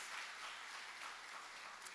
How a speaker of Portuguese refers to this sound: É, vamos dar um aplauso ao Senhor por esse casal? Glória a Deus.